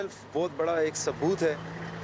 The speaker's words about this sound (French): À quelques centaines de mètres de là, les camions venus d'Afghanistan.